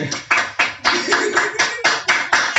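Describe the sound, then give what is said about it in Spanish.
Hands clap in a steady run of about nine sharp, bright claps, each with a quick decay, loud and fairly even in rhythm with no voices over them. “Desde que algo estúpido, pero un aplauso.”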